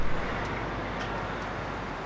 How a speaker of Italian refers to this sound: A sentirlo sembra il traffico di una qualsiasi città dell'emisfero boreale, ma a Brazzaville, nel Congo francese, va tutto per conto suo.